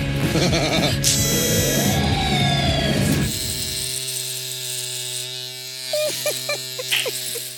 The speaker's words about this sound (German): Hier haben wir zum Beispiel gehört, wie Bastian Pastewka seine Zunge rasiert.